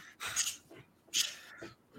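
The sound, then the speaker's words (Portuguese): A female dog pants in quick, breathy huffs, two louder bursts of airy exhalation with softer shuffling movement in between, and no one speaking. “É isso, a cachorra tá.”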